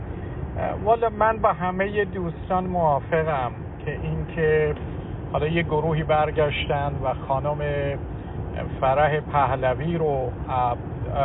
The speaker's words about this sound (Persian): بله بله من تو ماشین هستم میبخشید اگه یه کمی صدا از بیرون میاد